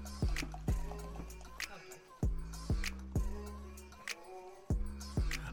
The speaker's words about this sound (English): So he's gonna go ahead and pour that up.